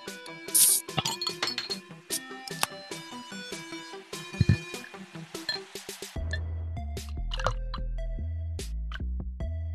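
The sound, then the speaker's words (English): Glasses clink and chime repeatedly, then Stone Enjoy By beer glugs and splashes steadily into a glass with a low, continuous gurgle for the last few seconds. No one speaks. “Look at all yins pouring, pouring stuff.”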